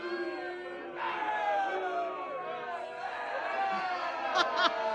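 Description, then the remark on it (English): A crowd-booing sound effect: a large crowd boos loudly and continuously, a sustained wall of jeering voices with rising swells and a few sharper shouts near the end. “This one just starts off with booze.”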